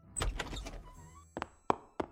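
A bedroom door opens abruptly in the early morning: a low rattling scrape with a faint creak, then three sharp, hard thunks spaced evenly apart, with no voices.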